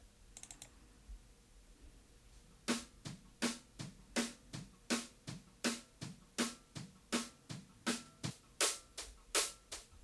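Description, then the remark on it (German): A drum kit picked up from overhead microphones: after a brief quiet start, a steady beat of bright, splashy cymbal hits with drum thuds underneath, evenly spaced and fairly loud, with no voices. “Jetzt Overheads wird vielleicht ein bisschen schwierig, da bin ich ja mal gespannt. Ich spiele mal ab”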